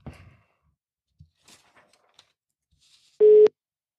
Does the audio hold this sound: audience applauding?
no